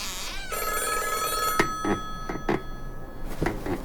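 An old black hardline telephone with a rotary dial rings loudly on a counter in the lobby of a long-empty lodge, a sustained metallic ring broken by several sharp clanging strikes, with no voices present.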